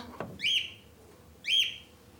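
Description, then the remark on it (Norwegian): A pet bird named Pablo, inside a bathroom, gives two matching high, sweeping whistled chirps about a second apart, clear, with a short click before the first and no talking. “De går bort til døra og lukker døra forsiktig opp den fuglen her inne?”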